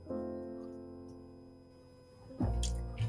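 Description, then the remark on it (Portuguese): Someone takes a quick sip of water, with a soft gulp and brief handling noises near the end over a steady low background hum. No one speaks. “Deixa eu tomar uma água aqui.”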